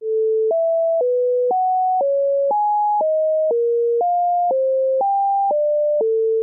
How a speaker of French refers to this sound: Alors avec les fréquences, c'est euh, faut multiplier par 9 huitièmes et pas 8 neuvièmes, mais c'est la, la même logique. Donc ça donne ça. Là, on peut écouter le cycle pythagoricien.